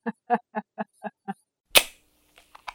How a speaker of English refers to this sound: did you hear that noise? I think I heard somebody opening a can of blankety blank's lemonade.